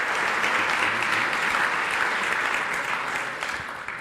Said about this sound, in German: Vielen Dank, ihr drei. Großer Applaus. Danke.